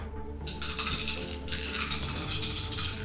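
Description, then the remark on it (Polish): Dice rattle and clatter continuously for a few seconds as a player rolls them during a game, a busy shaking rattle with brief pauses, with no voices present. “Mam nadzieję, że to będzie dobry rzut.”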